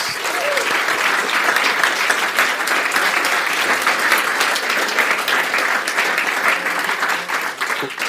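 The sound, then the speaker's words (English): Sustained audience applause from a large crowd in a lecture hall for all nine speakers at the conclusion of the program, a dense steady wash of clapping at an even loudness that holds for about eight seconds, with no voices standing out. “All right, how about one big round of applause for all nine of our amazing speakers?”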